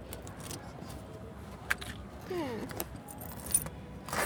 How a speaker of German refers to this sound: Sie streichelt ihr Kartons liebevoll mit einem Schlüssel.